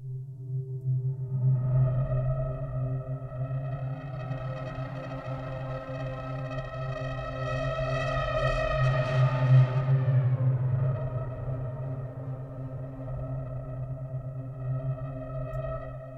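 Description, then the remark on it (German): A sustained synthesizer tone with steady harmonics slowly shifts its timbre, brightening and swelling around the middle before settling back, as an XY pad is used to morph between two samples, one left and one right, moving the sample range. No voices. “Jetzt können wir sehen, wenn ich das äh, XY-Pad hier benutze, wie sich die genau. Sample-Range hier bewegt und wir gucken, wie das Ganze klingt.”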